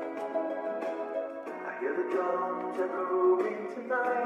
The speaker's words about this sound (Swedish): gör ni den subtila mixningen att det är lite ett eko på det så att det låter som att det är i ett övergivet köpcentrum det här.